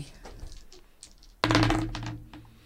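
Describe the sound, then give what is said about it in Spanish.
Quantum dice clatter across a hard tabletop in a sudden loud burst of rattling clicks that trails off over about a second, preceded by a few faint taps. “Vamos a ver qué le pasa al mundo con los dados cuánticos.”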